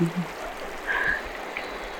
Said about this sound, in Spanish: Estamos al frente del río Estamos aquí en una agua sagrada, tan cristalina, que de hecho de esta misma agua es donde nosotros nos nutrimos en Buenaventura.